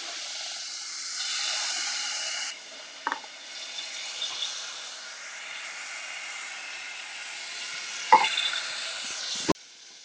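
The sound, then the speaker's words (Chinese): Loud, steady hissing sizzle as 50 cc of water hits hot caramel sauce in a pot, strongest for the first couple of seconds and then settling into a softer crackling fizz, with a few sharp clinks and knocks scattered throughout. “好，这加五十 CC 的水。好，刚开始会有点声音哦，不要怕哦，正常哦。”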